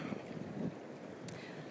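Sea waves wash steadily in a soft, continuous roar with a breezy, wind-like hiss and birdsong in the background, at a fairly low level with no voices.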